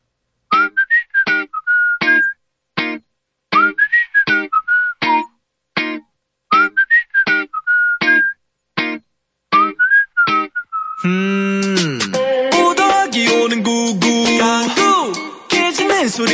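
A pop song, played as a listener's request on a radio show, opens with a bouncy whistled melody in short repeated phrases, then full band instrumentation with drums and synths kicks in loudly at about eleven seconds.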